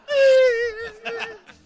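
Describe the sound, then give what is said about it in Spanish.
Someone mimics a child's crying with a single loud, high, quavering wail that sags slightly in pitch over about a second, then trails off into a few breathy, sobbing catches. “y el niño está llorando.”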